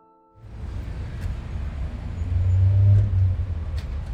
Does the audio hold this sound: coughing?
no